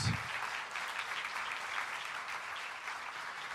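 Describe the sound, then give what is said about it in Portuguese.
An audience claps for Jesus in steady, dense applause that holds at an even loudness for a few seconds, a crisp, continuous patter of many hands with no voices standing out. “Deus salva de palmas a Jesus.”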